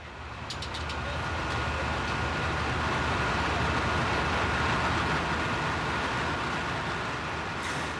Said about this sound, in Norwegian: Som vi hører her, så var det altså litt av et inferno under storbrannen i den verneverdige trehusbebyggelsen i Porsgrunn i Telemark i natt.